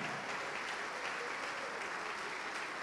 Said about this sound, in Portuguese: Vem para cá e vamos aplaudir ao Senhor Jesus. Para quem quer se entregar a Ele, vem para cá.